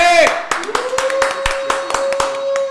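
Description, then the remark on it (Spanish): Scattered, uneven hand claps from a small audience ring out crisp for a few seconds, over a steady sustained tone, maybe a whistle or feedback, with some background voices. “vamos a dar un fuerte aplauso por favor a Juanjo que se escuche”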